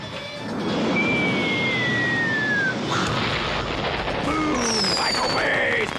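Loud explosion effects from a Michael Bay movie: a dense, continuous roar of blasts and rumbling debris with whistling, sweeping tones cutting through, sustained at full intensity for the whole stretch.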